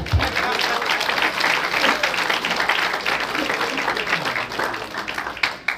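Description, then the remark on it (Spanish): An audience bursts into sustained applause as an offering of applause during a sermon, dense overlapping claps at steady loudness for several seconds, with faint voices mixed into the crowd noise. “Una ofrenda de palma ahí por lo menos.”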